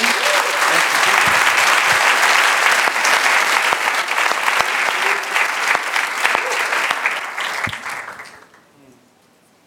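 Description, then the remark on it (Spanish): An audience claps together for Jesus in sustained, loud applause that holds steady for several seconds, then gradually thins out and fades away near the end. “¿Le quieren dar un aplauso a Jesús por lo que hizo?”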